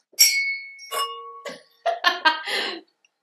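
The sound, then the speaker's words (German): Glasses clink together in a toast, two bright chimes with a lingering high ring, followed by a quick flurry of rough, choppy noises. “Darauf trinken wir.”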